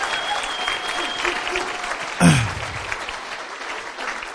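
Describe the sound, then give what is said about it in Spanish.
Steady applause from an audience for the speaker's wife fills the whole stretch, a dense crackle of many hands clapping, with a brief louder burst partway through before it carries on at an even level. “Eh, un aplauso para mi esposa, estuvo tremendo.”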